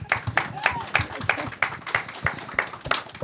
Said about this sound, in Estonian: on küsimusi, kommentaare, teeme lihtsalt ühe aplausi äkki.